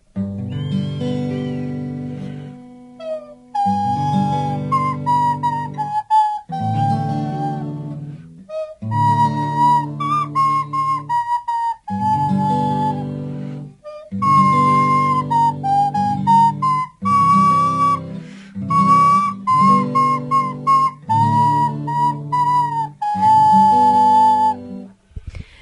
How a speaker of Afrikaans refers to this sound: Nou ek wil net vinnig vir die luisteraar sê dit kan nou dalk vir jou klink soos 'n gewone vletjie, maar onthou, dit is 'n vletjie wat deur die neus gespeel word. So dis nog as eienaardig om te sien. maar nou dis nou 'n stadige liedjie.